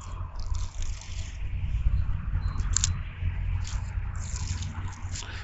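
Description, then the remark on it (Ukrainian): Last year's old bark being peeled off a birch tree, a continuous dry ripping and crackling like paper tearing, with a few sharper snaps along the way and no talking. “Слухай, зараз я буду з берези обдирати минулорічну корову.”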